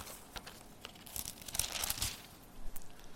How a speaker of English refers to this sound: Here in verse 10. it's good to hear those Bibles pages.